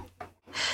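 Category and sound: human body sound, sneeze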